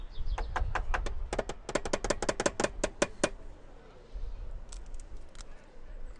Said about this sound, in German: Kettenfett jetzt. Echt. Kettenfett? Muss man das klopfen? Nee, ne? Doch.